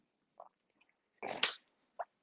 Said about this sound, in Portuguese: Tomar só um golinho d'água.